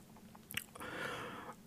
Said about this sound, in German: macht das Handschuhfach auf, in dem eine braune Papiertüte liegt, das knisternd ein Sandwich zutage fördert und meint dann, während er reinbeißt